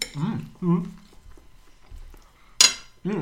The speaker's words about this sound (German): Übrigens, wo wir gerade diese Essgeräusche machen